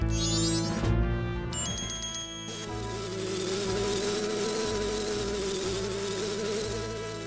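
insect, wasp buzzing

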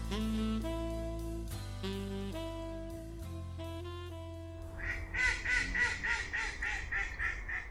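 bird, mallard duck quacking

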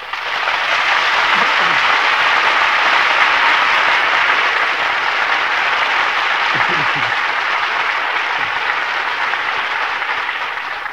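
crowd, studio audience applause

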